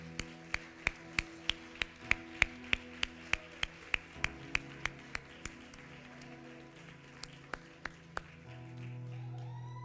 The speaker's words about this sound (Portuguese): Os olhos de Davi estavam em Deus, e eu queria chamar Deus neste momento. Vamos aplaudir a entrada de Deus e os seus anjos.